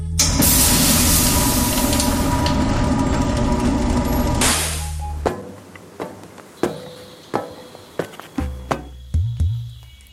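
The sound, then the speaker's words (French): A spaceship door opened by the control computer, with a loud, steady pneumatic hiss over a low hum for several seconds, then cutting off into a run of sharp mechanical clunks and clicks. “Euh, ouverture de la porte, s'il te plaît, ordinateur de contrôle.”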